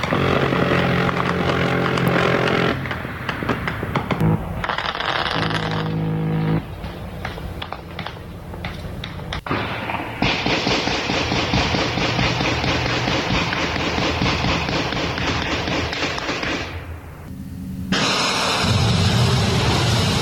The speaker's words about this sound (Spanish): este en el penal, de Aguaruto, si no me equivoco, señor productor, o de dónde es esta balacera o de las calles de Culiacán, porque tenemos de Culiacán. Tenemos de las eh, calles de, Culiacán. A, a, a ver, eh, a ver, escuchemos.